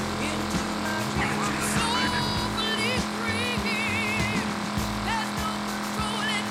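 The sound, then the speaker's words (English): A video game racing car engine roars steadily at high speed during a race with a police car in pursuit, loud and continuous, with whining pitch shifts and occasional sharp bumps as the car tears along. “Too bad this car's just hauling.”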